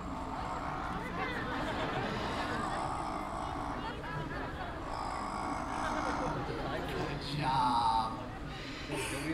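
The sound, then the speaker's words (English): A double yellow-headed Amazon parrot imitates a tiger's growl, a raspy, rumbling snarl that carries on almost without a break for several seconds, fairly loud, swelling briefly near the end. “picked up a lot of animal sounds as well. One of my favorites is the big, scary tiger.”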